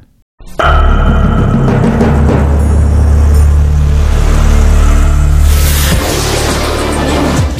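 A radio show jingle bursts in after a short silence, a loud, dense roar with a revving, engine-like rumble that holds steady for several seconds, with a brighter swell of noise near the end.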